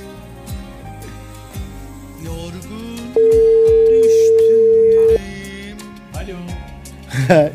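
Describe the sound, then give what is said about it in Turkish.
A single loud, steady telephone tone, like a busy or unanswered call signal, holds for about two seconds over background music and voices before cutting off abruptly. “Ben şu anda e, ısrarla sürprizimi yapmaya çalışıyorum ama ben dedim sana benim telefonum açmayabilir diye.”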